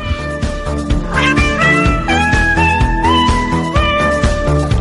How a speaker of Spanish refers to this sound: No, yo creo que es que le han puesto hasta autotune. O sea, ya como tanto de moda ponerle a todo autotune, pues al maullar de gatos ya le han puesto autotune y ya suena como cualquier reggaetonero.